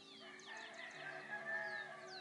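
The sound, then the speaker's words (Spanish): Outdoor birdsong with several birds calling at once, high chirps and sweeping whistles layered over a steady background, including fowl-like clucking and crowing, continuous. “Y con las aves.”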